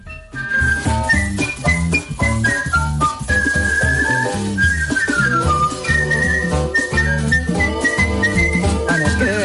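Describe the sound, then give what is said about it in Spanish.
A woman, crowned the world's best whistler, whistles a clear, bright melody, gliding between notes continuously over a full instrumental backing track, with no talking. “Y además es que, eh, ni más ni menos, acabas de ser elegida, coronada como la mejor silbadora del mundo.”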